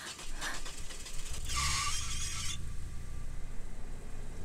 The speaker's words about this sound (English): Now the car it's just running. Was that you?